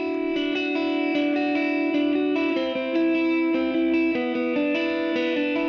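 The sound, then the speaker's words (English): The title track of a band's EP plays with dense, sustained tones processed with chorus and distortion effects, shifting chords in a steady pulse at an even, full loudness. No voices. “I'm leaving you with the title track right now.”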